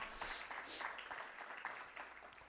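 A crowd claps together steadily during a sermon, giving the Lord a hand clap: a dense, continuous patter of many hands filling the whole stretch at an even loudness, with no voices standing out.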